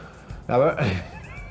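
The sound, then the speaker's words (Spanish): A person imitates a cat's meow with a single loud, drawn-out cry whose pitch bends as it stretches, then trails into softer voiced sound. “la pobre Limei empieza a gritar como una gata? ¡Miau!”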